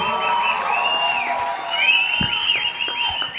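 An audience cheers and applauds, a dense, steady roar of voices and clapping that stays loud throughout, with high-pitched whoops and shouts rising above it.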